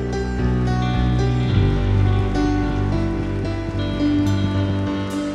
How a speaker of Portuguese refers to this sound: Todo o povo de Deus, diga amém, aplauda ao Senhor no seu lugar.